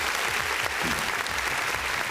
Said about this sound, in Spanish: Aplaudemos. Aplaudemos, aplaudámosles. Porque han hecho su trabajo en gran manera.